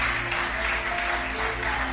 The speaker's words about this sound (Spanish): Amén. Dale ese aplauso fuerte.